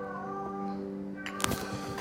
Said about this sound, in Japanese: なんか外で猫が鳴いている